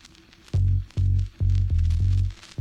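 A pop song recording plays loud and close, driven by heavy, booming bass notes that pulse in a steady rhythm roughly every half second, with no voices.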